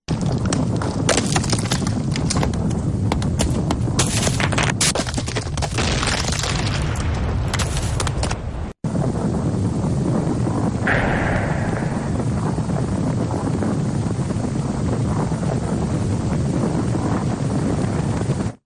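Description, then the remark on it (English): Loud, continuous roaring rumble with heavy low-end power and bursts of cracking, crashing debris in the first half as parts of the National Palace in Port-au-Prince, Haiti, break apart during the great Haiti earthquake; a brief cut, then the roar continues. “Listen to some sound now of parts of the National Palace in Port au Prince, Haiti, literally breaking apart as the quake hits.”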